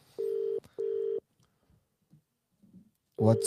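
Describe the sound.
Two steady electronic ringing tones of an outgoing phone call beep in succession, each under half a second, followed by quiet line noise and then a voice briefly answering at the end.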